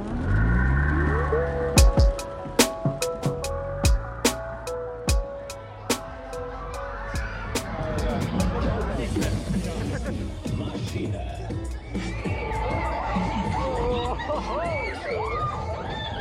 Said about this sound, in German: Da bin ich für die alljährliche Kirmes zurück in mein Heimatdorf Nordwalde gepilgert